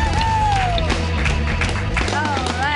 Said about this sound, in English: Thanks, guys. Keep clapping!